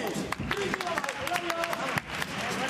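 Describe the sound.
An audience applauds steadily, a dense wash of many hands clapping that stays loud throughout, with voices calling and cheering mixed into the noise.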